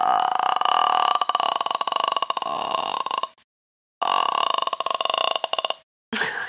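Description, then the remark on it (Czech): A voice does a vocal exercise imitating a really old creaking door: a drawn-out, rattling creak like a door slowly swinging on its hinges. There are two long, loud creaks with a pause between, then a brief third one begins. “to jsou starý vrzající dveře”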